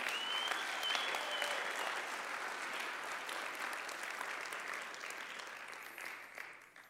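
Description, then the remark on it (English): An audience at Rest Church applauds to thank the breakfast servers and worship team, steadily for several seconds, a dense wash of clapping from many hands with a few scattered whoops, tapering off at the end. “I want you to give them a round of applause and to tell them how thankful you are.”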